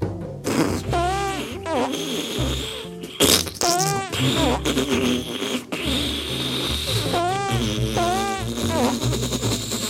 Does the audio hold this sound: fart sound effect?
yes